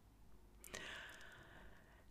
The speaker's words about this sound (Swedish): ska jag andas så det hörs så att den som ska bedöma mig, jag sa inte fröken, verkligen hör hur fint jag andas.